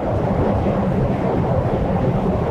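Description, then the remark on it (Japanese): A steady, heavy low rumble fills the whole stretch as a train passes during someone's ride outdoors, loud and continuous with no voices over it. “今ちょっと電車が通っちゃってですよ。”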